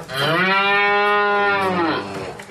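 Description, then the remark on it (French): A single long, loud moo from a Charolais cow, the cow featured on the poster of the Salon de l'agriculture in Paris, France, clear, a sustained rich harmonic bellow lasting nearly two seconds before trailing off, with no talking. “Aujourd'hui, on va rencontrer la vache la plus célèbre de France.”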